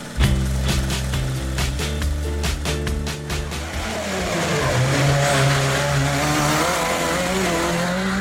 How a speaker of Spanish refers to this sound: Así, con este sonido ha arrancado la competición automovilística en Andalucía. Están oyendo algunos de los participantes de la tercera edición de la cronometrada de Benamaoba, disputada el pasado fin de semana en carreteras de la Sierra de Grazalema.